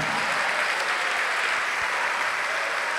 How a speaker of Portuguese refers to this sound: Oh glória, vamos aplaudir ao Senhor, porque muita gente foi curada agora.